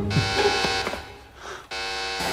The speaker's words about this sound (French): Ceci est une alerte de type A, alerte maximale.